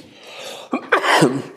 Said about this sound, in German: Sorry. Gesundheit.